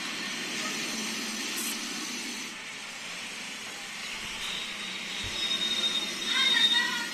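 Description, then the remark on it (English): A low, breathy hiss from a king cobra, a steady growling rush of air that runs unbroken for several seconds, fairly quiet, swelling slightly toward the end. “there's this really low hissing sound. It's not the like cat hiss you often hear in the movies.”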